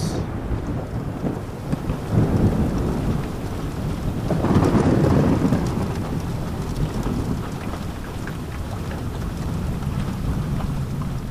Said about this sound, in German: Lass dich auf den beruhigenden Geräuschen des Gewitters tragen.